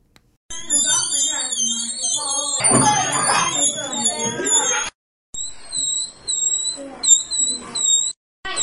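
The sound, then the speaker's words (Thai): Shrill, wavering squeals from children blowing flame-of-the-forest (dok jan, dok thong kwao) flower petals arranged together to make sound, in bursts over about eight seconds, with a noisy burst of voices mixed in midway. “น้องๆ บางคนเนี่ย ก็เด็ดเอามาชิมน้ำหวานที่เป็นอยู่ในเกสรของดอกไม้ หรือว่านำมาเรียงต่อกันเพื่อเอามาเป่าให้เกิดเสียงค่ะ ก็ถือว่าเป็นการเรียนรู้จากธรรมชาตินะคุณผู้ฟัง แต่ว่าการเอามาเป่าให้เกิดเสียงเนี่ยจะเป็นอย่างไรมีตัวอย่างเสียงให้ได้ฟังกันค่ะ”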